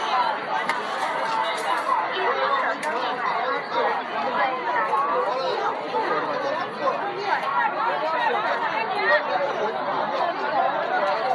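Dense crowd chatter fills a busy morning market, many overlapping voices blending into a steady, loud babble with no single speaker standing out, holding constant throughout.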